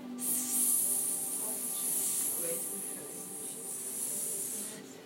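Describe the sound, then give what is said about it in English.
Several voices make a long, sustained snake-like hiss together while slithering up into a snake pose, a steady breathy sss lasting about five seconds, even in loudness, with faint low murmuring beneath. “So we're going to slither, slither, slither into a snake and go.”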